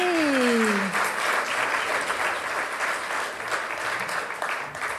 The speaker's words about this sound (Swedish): en Varm applåd!